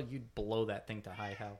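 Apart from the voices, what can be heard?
cat meowing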